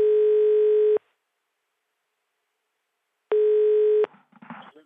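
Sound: telephone ringing tone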